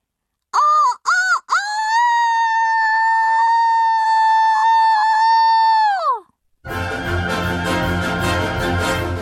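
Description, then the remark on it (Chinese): A young rooster crows loudly: two quick clipped notes, then one long, steady, high-pitched call held for about five seconds before tapering off. A burst of harsh noise follows. “啼鸣声当中，蛇怪开始膨胀，越来越大，越来越大，就像一颗被放在火上烤的栗子一样。”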